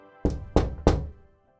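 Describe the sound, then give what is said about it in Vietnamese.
Three firm knocks on a wooden door, evenly spaced about a third of a second apart, fairly loud, each with a short resonant thud and quick decay. “bạn cứ tưởng tượng đang ngồi say sưa đánh máy chữ nghĩa tuôn trào thì mình lại nghe tiếng gõ cửa”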